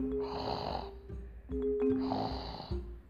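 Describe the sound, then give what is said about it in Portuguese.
A voice imitates a grandmother snoring: two loud, drawn-out, rasping snores, evenly spaced, each about a second long with a short pause between. “em cima de uma avó roncando.”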